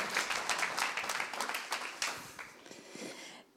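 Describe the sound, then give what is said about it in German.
A crowd applauds as a person is invited onto the stage, with dense, crackling clapping that stays steady for about two and a half seconds, then thins out and fades away. “dürft ihr auch herzlichen Applaus geben.”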